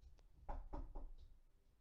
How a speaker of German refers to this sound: Oh, bei mir klopft's an. Ich kann gerade nicht.